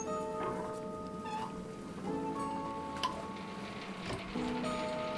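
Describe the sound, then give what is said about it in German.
Honey drops patter inside a hand-cranked honey extractor as honey is spun out of the combs, faint irregular ticks over a steady mechanical whir that shifts pitch slightly as the crank is turned slowly. No one speaks. “Hörst du die Tropfen? Das ist der Honig, der aus den Waben gedrückt wird.”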